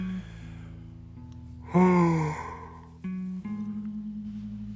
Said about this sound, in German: Wahnsinn, dass ich jetzt gerade aktuell so viel am Gähnen bin.